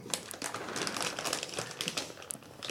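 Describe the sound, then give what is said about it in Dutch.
A candy wrapper crinkles steadily for a few seconds, a dense run of crisp, papery crackles and snaps with no talking. “Je kan toch even een snoepje eten, even een slokje thee nemen”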